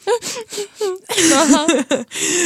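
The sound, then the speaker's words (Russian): A voice mimics quiet sobbing, imitating friends crying near the end of a film at a birthday party: a few short, shaky whimpering catches, then a longer wavering, trembling wail, all fairly soft, with no other sounds around it. “И я такая разворачиваюсь, друзья, вы что, плачете?”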